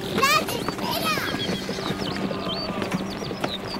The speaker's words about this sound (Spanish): Caballos. Y muchos. Algo pasa.